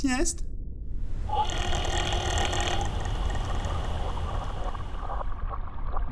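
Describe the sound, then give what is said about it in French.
The measurement pump motor of a profiling float kicks in with a steady droning rumble and a brief rising whine, running continuously for several seconds. The pump activates every metre to take measurements as the float rises at about 10 cm per second, at around 1000 metres depth. “Difficile de dormir avec cette pompe qui s'active tous les mètres pour faire des mesures.”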